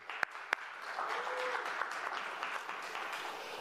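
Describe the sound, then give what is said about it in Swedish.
A church audience claps steadily for the crew running the big screen, a dense wash of many hands with a couple of sharp, louder claps standing out at the start, continuing evenly throughout. “Bra jobb till killarna vid storbilden där, en applåd till dem.”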